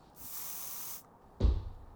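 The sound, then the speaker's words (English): A single sustained hiss of sleeping spray from an aerosol, sprayed through a window, lasts about a second, steady, then cuts off; moments later a dull low thump follows. “Now, get into the window and spray them with that sleeping spray I gave you, huh?”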